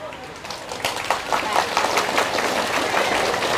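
A crowd claps together in dense, steady applause, many hands making a continuous bright patter that swells slightly and holds strong throughout.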